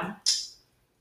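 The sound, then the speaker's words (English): A short scuffing rustle, then a sharp metallic clank of a dog cage door or latch that rings briefly and fades, with no voices, as someone struggles to open the cage to let the dog Mars out. “yeah, hers is on there struggling to open his cage.”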